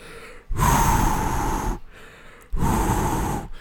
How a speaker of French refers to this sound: J'ai eu l'idée de m'acheter un headset. HyperX Cloud 2, qui est un très excellent casque pour le son, mais le micro est excessivement sensible, puis quand on joue euh, sur Internet, tout le monde m'entend respirer, puis ça ressemble un peu à cela.